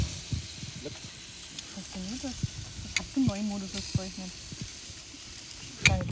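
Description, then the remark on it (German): Bratwursts sizzle steadily on a grill, a continuous crackling hiss with a few sharper pops and clicks, while voices murmur briefly over it. “Ach, oh, schau mal, wie die Bratwürste jetzt. Schau.”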